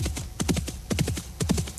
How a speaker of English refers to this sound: Well, if this horse shouldn't be galloping now. It needs to canter. It's tired.